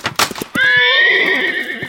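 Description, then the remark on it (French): A few quick knocking hoof-like thuds, then a horse lets out one long, loud neigh, wavering and gradually dropping in pitch as it fades. “Mais je ne savais pas que les chevaux pouvaient se faire mal comme ça, tout seuls, dans leur pré.”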